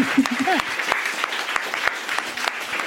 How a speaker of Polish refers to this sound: Słuchajcie, wielkie brawa dla nich, dla naszych dzisiejszych gości, dla Państwa Państwa też.